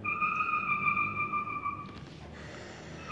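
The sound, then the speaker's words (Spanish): A steady, high whistling tone holds for about two seconds outdoors, then breaks into a brief rushing hiss, like a whistling firecracker going off; it is September and people are setting off rockets. “Ya es septiembre y es una abejita. Están tronando cohetes.”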